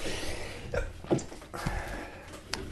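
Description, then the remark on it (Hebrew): A single sharp sneeze bursts out at moderate volume, with a quick breathy intake just before it and faint background noise and small rustles around it. “לבריאות.”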